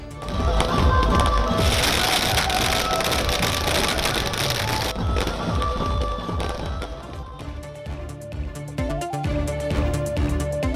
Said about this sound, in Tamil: நான்கு மாநிலங்களில் ஆட்சியை மீண்டும் பிடித்தது பாஜக தொண்டர்கள் பட்டாசு வெடித்து உற்சாக கொண்டாட்டம்